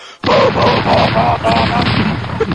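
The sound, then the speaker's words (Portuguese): A voice imitates several anti-aircraft cannons firing: a loud burst of rapid, rattling booms in a steady rhythm that runs for about two seconds without pause. “Cara, é uma guerra, você não tem noção, são vários canhões daqueles antiaéreos fazendo.”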